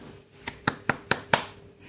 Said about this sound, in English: Shall we clap hands together?